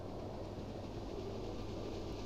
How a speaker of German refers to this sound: Der Zug ist durch die schwarze Nacht gefahren, stundenlang.